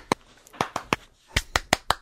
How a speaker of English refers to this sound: I, was somebody clapping or jerking off? What was that? clapping.